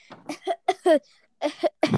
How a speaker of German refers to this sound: Ich muss husten. Ähe, ähe. Also, ich hab jetzt Achtung, ich muss husten.